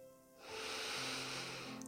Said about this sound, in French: Tu vas utiliser ta respiration pour détendre ton corps. Prends une grande inspiration par le nez